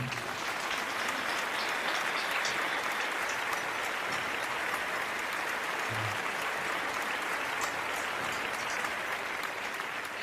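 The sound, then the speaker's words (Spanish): Sustained applause from a sizable audience, a dense steady wash of clapping that holds at an even level for about ten seconds without letting up. “Dale un fuerte aplauso a papá.”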